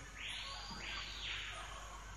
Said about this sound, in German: Ein paar Vögel oder irgendwie sowas kreischen.